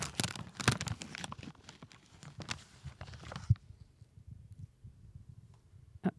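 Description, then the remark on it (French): Dry sage leaves crackle and tear in a busy, rustling burst for a few seconds as a piece is torn off a sage bundle for a burning ritual in a cellar, then it goes quiet apart from a couple of soft isolated crunches. “Je pense qu'il faut que chacune d'entre nous brûle un bout pour que le rituel soit correctement euh, effectué.”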